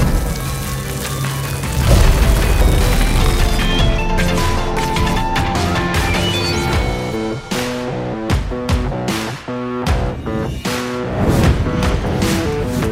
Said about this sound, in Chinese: 迪里这一招使出了雷电攻势，就像闪电侠皮卡丘一般，怪物被打到十万伏特击中他，怪物发出惨叫。